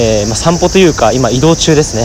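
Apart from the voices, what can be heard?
cicadas chirping loudly outdoors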